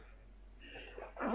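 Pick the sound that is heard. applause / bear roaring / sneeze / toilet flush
sneeze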